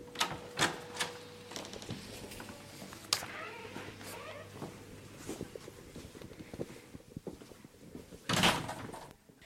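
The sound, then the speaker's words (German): A large, heavy door to the great festival hall of a university of applied sciences is opened: sharp clunks and latch clicks, a low rumbling hum as it swings, then a louder thud toward the end. “Und jetzt öffnen wir eine große, schwere Tür zum großen Festsaal der Fachhochschule.”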